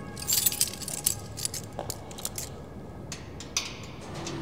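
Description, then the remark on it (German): A copied key jingles and scrapes against a lock as someone tries whether it fits, in a series of metallic clinks and rattles, busiest at the start, then a few scattered taps over a low background rumble. “Na, das wäre es auch, wenn der jetzt auch noch passen würde.”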